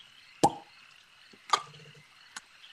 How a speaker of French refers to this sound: alors que genre, il y a des, espèces de bulles qui remontent à la surface.